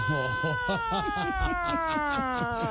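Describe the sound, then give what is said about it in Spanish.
A voice imitates an ambulance siren: a long, steady wail that slowly slides downward in pitch, with quick repeated pulsing syllables underneath, loud. “y hasta trabajé manejando ambulancia y para ahorrar batería en los trancones yo sacaba la cabeza por la ventana y hacía”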